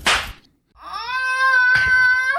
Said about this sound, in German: Ähm, vielleicht machst du ja so, so einen Peitschen-Sound rein.